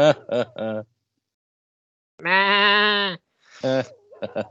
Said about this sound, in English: Oh, it's a goat.